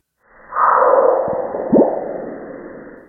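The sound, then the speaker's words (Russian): A strange, muffled bloop-like impact sound recorded on Mars: a low, resonant thud with a brief sweeping tone over a hollow, band-limited rumble, heard alone with no talking. “довольно странный звук, который не похож совершенно на привычные нам звуки ударов. Это скорее описывается как блуп.”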